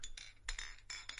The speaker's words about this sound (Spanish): No, sin escalar ni nada, pero solamente un brindando un chinchín, por favor.